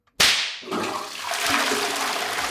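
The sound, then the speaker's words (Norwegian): A single sharp whip crack snaps out loudly, immediately followed by the rushing, gurgling swirl of a toilet flushing that continues steadily to the end. No voices. “Fordi du pisket toalettet ditt?”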